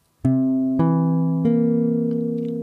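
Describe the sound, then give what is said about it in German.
A C7 chord struck three times in quick succession on a keyboard instrument, each attack bright, the final strike left ringing and slowly fading. No one speaks. “Hier ist ein C7-Akkord. Hör mal.”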